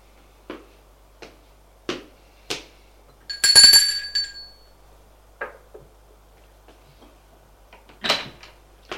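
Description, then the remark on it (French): A few sharp footstep-like taps as a policeman leaves an elevator lead to a short, bright doorbell ring at a door, followed by scattered clicks and a louder clatter of the door being opened by a servant near the end. No voices. “Sort de l'ascenseur et va sonner à la porte.”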